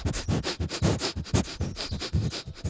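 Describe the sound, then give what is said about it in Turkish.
A voice imitates a cat sniffing at things newly brought into the home: a rapid, steady series of short, breathy, hissing sniffs, fairly loud, with no speech. “Gümrük memuru gibi evinizde zaten kedi köpek varsa biliyorsunuz eve eşya geldi mi gümrük memuru başlıyor fısı fısı.”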